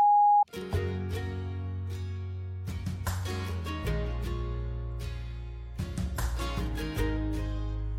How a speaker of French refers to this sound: laisser un message après le bip sonore.